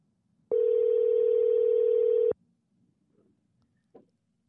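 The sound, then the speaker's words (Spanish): A single steady ringback tone from an outgoing call placed from a mobile phone, lasting a couple of seconds and then cutting off abruptly, followed by faint background noise and a brief soft knock. “Háblale, amor Ah, pero le, le entra la llamada de mi celular.”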